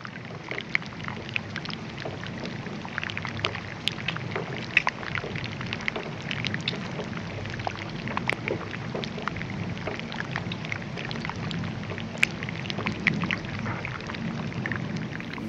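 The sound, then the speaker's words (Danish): Pieces of ice melting in a bay, giving off a steady, dense fizz of tiny crackles and sharp pops over a low watery rumble, with no voices. “der kunne man, øh, der kunne man ligesom høre øh, en hel masse stykker is, der lå inde i bugten og smeltede.”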